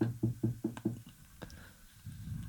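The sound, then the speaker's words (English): Five quick, even knocks rap on a wooden door, followed by a softer single tap and then quiet room noise. “There's immediately a knock at your door.”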